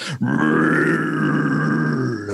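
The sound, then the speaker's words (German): A loud, close roar of a rearing bear, about 2.5 to 3 meters tall and around 300 kilos, one deep sustained growling bellow that holds steady for about two seconds before cutting off, heard on its own without any talking. “Das sind die Spuren eines Bären. Und er du dich versiehst, werte Sie, Mariel, hörst du auch schon in unmittelbarer Nähe ein.”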